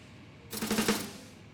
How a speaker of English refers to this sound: I hear a jackhammer. Yeah, that.